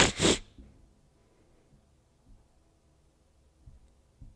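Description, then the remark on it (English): A person imitates a dog sniffing: one short, loud, breathy snort of air at the start, then near silence with a few faint low thumps. “in case you don't get it for the audio, I sniffed, which means I'm a dog and I want her bush.”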